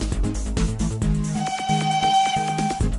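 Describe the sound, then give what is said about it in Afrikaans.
The whistle of the Tini train holds a long, steady tone partway through, sounding over a rhythmic, low chugging backdrop. It is fairly loud, with no one talking. “Is dit dalk die Tini trein wat ek daar gewaar?”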